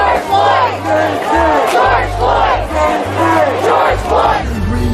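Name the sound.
protest crowd chanting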